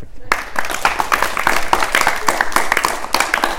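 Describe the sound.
After a brief pause, an audience breaks into a loud, sustained round of applause, dense overlapping claps with some cheering voices mixed in, continuing steadily to the end.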